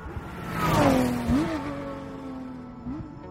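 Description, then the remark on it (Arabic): A Ford long-bodied car's engine revs up with a rising whine, then settles into a steady hum with brief pitch bumps as it shifts, fairly loud, no voices, in a car advertisement. “في دعاية لإحدى سيارات فورد طويلة الهيكل كان شعارها خلي اللي وراك يعرف أنك قدامه باللغة الإنجليزية طبعا”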